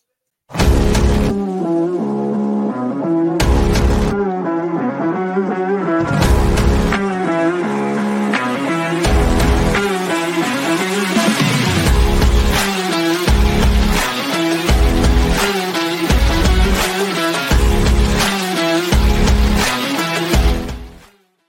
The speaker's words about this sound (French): est-ce que tu peux nous mettre le générique, s'il te plaît